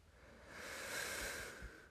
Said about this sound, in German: Jetzt atmet …, nimmt die Schuhe, zieht sie an, geht raus, geht direkt wieder rein und holt sich eine Jacke und Handschuhe, denn es ist sehr kalt.